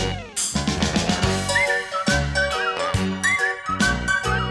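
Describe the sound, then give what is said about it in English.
The opening theme of It's Garry Shandling's Show: a bright, upbeat theme tune with chiming accompaniment and steady rhythmic chords, with a whistled melody line gliding in on top partway through. No one speaks. “This is the music that you hear as you watch the credits. We're almost to the part of where I start to whistle.”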